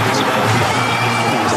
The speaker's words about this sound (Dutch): Dit was de lancering van de Falcon Heavy. ik krijg gewoon kippenvel als ik het hoor. Schitterend, En ik heb dat nu volgens mij duizend keer gezien. Ik vind dit echt zo gaaf.